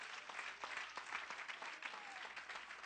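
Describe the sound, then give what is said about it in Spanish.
A crowd claps steadily for about three seconds as applause to the Lord Jesus, a dense wash of overlapping handclaps with a few sharper individual claps standing out. No one speaks over it. “Somebody clap your hands. Un aplauso al Señor Jesús.”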